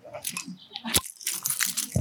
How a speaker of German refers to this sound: Das war jetzt nicht so gut. Ich glaube auch, das Rascheln von dem Schlüssel ist einfach viel lauter als das Bier selbst. Achso, das hat er schon gezischt.